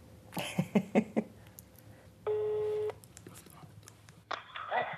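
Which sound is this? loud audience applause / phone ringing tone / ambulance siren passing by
phone ringing tone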